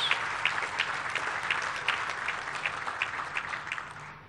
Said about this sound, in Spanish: los técnicos, tanto de ingeniería hidráulica como los de ingeniería civil, también un aplauso a los técnicos.